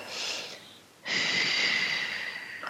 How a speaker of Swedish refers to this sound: Och hålla ihop läpparna och andas ut långsamt mellan läpparna. Så det blir som ett ah. litet ljud så här.